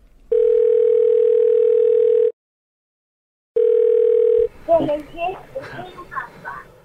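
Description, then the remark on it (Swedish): A telephone ringback tone sounds while a call is placed to a foreign correspondent: one long steady electronic buzz, a pause, then a second tone cut short as a voice starts talking over the line. “Ja, vi gör ett försök att ringa vår utrikeskorrespondent”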